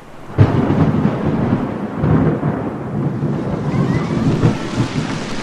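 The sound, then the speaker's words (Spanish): A heavy afternoon thunderstorm with hail breaks over a Children's Day celebration: deep thunder rolls in abruptly and keeps rumbling over a dense, steady roar of pounding hail, loud throughout, with no voices. “Esa fue la tarde del granizo. ¿Y qué granizo? Fue la tarde del Día del Niño y la tormenta nos agarró en medio de los festejos.”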